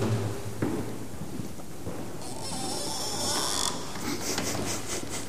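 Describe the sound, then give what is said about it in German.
A drawn-out creaking from a knee joint, a rough grinding texture that stretches over a few seconds with a couple of faint clicks, no voices present. “Das war gar keine Tür, das war mein Kniegelenk”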